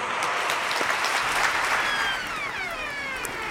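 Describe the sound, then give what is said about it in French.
Steady audience applause for MEDEF founder Ernest Antoine Sayer at the 20th anniversary edition of the MEDEF summer universities, a dense crackle of many hands clapping at an even loudness, easing slightly toward the end as a few faint voices surface. “Et c'est l'occasion pour moi de saluer euh, le fondateur du MEDEF, Ernest Antoine Sayer, que je vous demande d'applaudir.”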